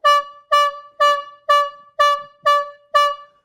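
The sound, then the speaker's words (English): A trumpet blares seven short, bright, identical blasts in a steady quick rhythm, each cut off sharply, sounding loud like an urgent staccato alarm call with no voices. “And hearkening back to these silver trumpets, remember there was an alarm call. It was to be a clear call, a staccato call,”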